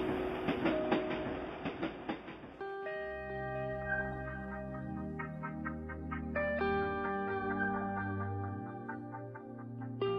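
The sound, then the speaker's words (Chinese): A subway train rattles with a dense, clattering roar for a couple of seconds, then gives way to steady layered humming tones that shift in pitch, with no one speaking. “经过混乱喧嚣的公交、地铁，”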